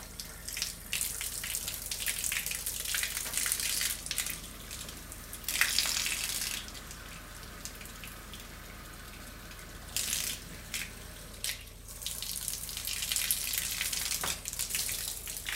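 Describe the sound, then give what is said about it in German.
Water runs from a tap in a steady splashing hiss, swelling and easing in several stretches with quieter gaps between. No one speaks. “Oh, Wasser läuft.”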